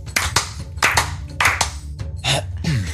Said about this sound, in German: Klatschen und dann auf Record drücken. Drei, zwei, eins.